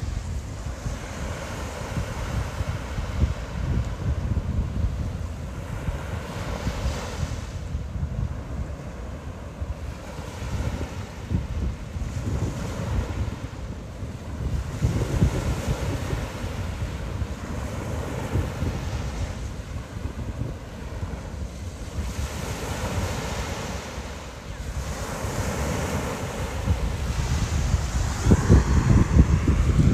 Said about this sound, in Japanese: いや結構ね波の音がいい感じなんでね、えー、ちょっとの間波の音を楽しんでいただきたいと思いますこんな感じです